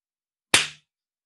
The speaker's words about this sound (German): Und damit ich das zu schneiden finde, bitte nicht erschrecken, werde ich jetzt mal laut klatschen.